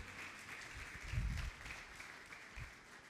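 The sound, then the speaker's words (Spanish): A crowd claps steadily for about three seconds, a dense crackling wash of many hands, with a couple of low thumps underneath and no one speaking. “Dale ese aplauso al rey.”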